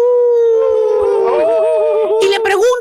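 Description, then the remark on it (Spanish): A person imitates a wolf howl with a long, sustained, wavering vocal tone that rises and bends in pitch, loud, ending with a few breathy bursts. “Sí, Y hace así como los lobos, lo hace, uh,”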